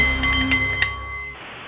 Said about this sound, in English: Ladies and gentlemen, good afternoon. The Nepalese meditation bowl is chiming, and that means it's time for The Art of the CEO, the show for people who enjoy the challenge of business and who want to do it a little better.